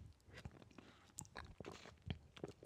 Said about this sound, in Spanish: Dejen tomar un sorbo de agua aquí. Vamos a hacer un ASMR.